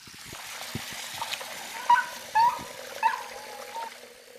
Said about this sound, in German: Hier muss man als Friseur sehr vorsichtig sein, damit die Hunde keine Angst bekommen. Also viele Hunde haben Angst vor Wasserflussgeräusch.